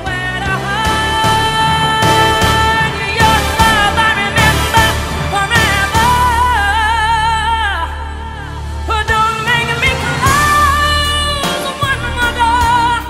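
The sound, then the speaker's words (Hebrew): A full-band pop song plays loud and continuous, a sung melody over dense instrumentation, with the music abruptly shifting into a different key partway through. “שיר רגיל, מתקדם בכיוון יפה, אז תופס אזימות לכיוון אחר לגמרי.”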